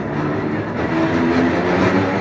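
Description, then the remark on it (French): Trams running in all directions through a city rumble along their rails in a steady, continuous roar, with low mechanical droning and faint metallic squeals, fairly loud, no voices. “Il y a des palais partout et des tramways qui roulent dans tous les sens.”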